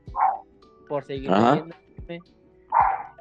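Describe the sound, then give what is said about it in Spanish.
Dogs in the neighborhood bark in the background in short bursts, a few sharp barks near the start, middle and end, while a man talks over them. “A ver si ahorita se callan los perros”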